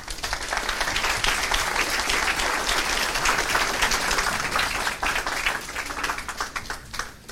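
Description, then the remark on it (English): Sustained applause from an audience welcoming back a speaker, dense steady clapping for several seconds before tapering off near the end. No one speaks. “Please welcome back Dr. John Cuddeback.”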